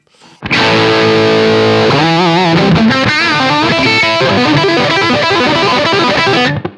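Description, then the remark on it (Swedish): A loud, heavily distorted electric guitar through an amp with a boost engaged for maximum gain and some room reverb added: a thick sustained chord rings out, then gives way to a busy run of gritty, saturated notes before cutting off. “Ja, och så, så boost på det då, så att vi får max”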